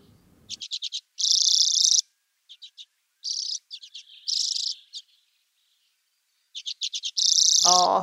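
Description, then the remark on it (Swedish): A male common redpoll with a red breast sings alone: quick bursts of dry, high chattering notes alternate with buzzy, rasping trills, repeated in a lively, uneven rhythm, ending with a brief descending call. “svårt att motstå när det kommer en rödbröstad herre och sjunger så här tjusigt.”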